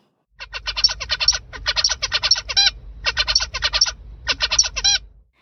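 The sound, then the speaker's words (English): A zebra finch tutored or cross-fostered by a Bengalese finch sings clearly: four bursts of rapid, buzzy harmonic syllables, each a stuttering string of nasal notes ending in a brighter call, separated by brief pauses, over a low background hum. “While a zebrafinch tutored or cross fostered by a Bengalese finch will form a song with different characteristics.”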